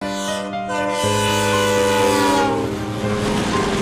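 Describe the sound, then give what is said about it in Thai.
A train running north through Elephant Pass toward Jaffna rumbles past with a loud, sustained horn blast, steady harmonic tones over a roaring, rattling hum of wheels on rails that swells and then thins out. No one speaks. “รถไฟขบวนหนึ่งวิ่งผ่าน Elephant Pass หรือทางช้างขึ้นไปทางเหนือ จุดหมายปลายทางคือจาฟนาเมืองตอนบนสุดก่อนจะข้ามสู่อินเดีย”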